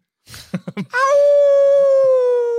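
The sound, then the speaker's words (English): A few short, choppy yips lead into one long howl from a giant wolf, held loud and steady at a single pitch for well over a second before sagging slightly at the end. “Ain't no wolves in Ohio.”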